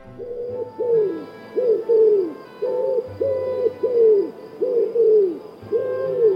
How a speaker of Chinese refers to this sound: 哎呀，鸽子这个声音让猎人听到了耶，他发现了。